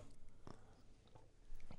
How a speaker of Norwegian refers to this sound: Sa du etter en slurk med organisk eh, leskedrikk. Nei, økologisk leskedrikk.